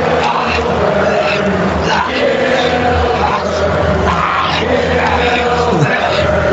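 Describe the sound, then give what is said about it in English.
A large arena crowd at Monday Night Raw at the Compact Center chants "Gillberg" in a loud, unbroken wall of voices, with rough rhythmic surges rising and falling throughout and no clear single speaker. “All those genuine guilty chants.”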